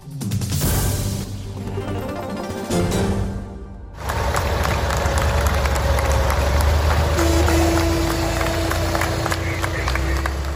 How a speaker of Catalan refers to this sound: Així, amb aplaudiments, és com els tarragonins han rebut els tractors dels pagesos quan han entrat a la plaça Imperial Tàrraco tot i els problemes de trànsit que s'han generat.